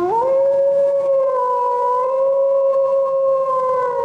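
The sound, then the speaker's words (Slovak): A single loud wolf howl that rises quickly at the start, then holds a long, steady, mournful tone for several seconds, with no voices present. “A v tej istej hore býval aj jeden zlý vlk.”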